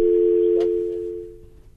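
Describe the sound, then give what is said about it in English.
A steady, continuous telephone dial tone from a dropped phone call hums alone for nearly two seconds, loud at first and slowly fading, with a brief faint click partway through. “Okay, I think we dropped your line.”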